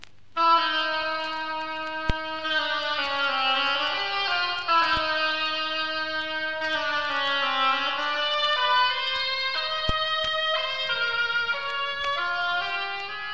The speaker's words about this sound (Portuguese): a pata, será representada por um instrumento chamado oboe e que soa assim.